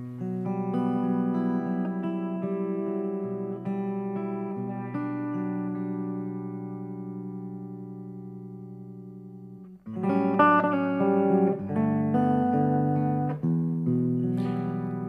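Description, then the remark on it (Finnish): A Captain Nemo electric guitar, resembling a Gibson Les Paul and with a pickup using new-old tube technology, plays sustained chords that ring out and slowly fade, then a brighter, busier strummed passage follows. The tone is warm and clear, with no voices. “Tuossa soi kapteeni Nemo-kitara, jonka mikrofoni edustaa uusvanhaa putkiteknologiaa.”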